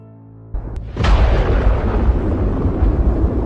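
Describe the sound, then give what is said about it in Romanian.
A thunder sound effect, triggered by pressing an effects button: a low rumble builds, then a sharp loud crack breaks into a deep, rolling roar that keeps grumbling steadily to the end. No voices. “Tunetul a luat viață prin apăsarea unui buton de efecte.”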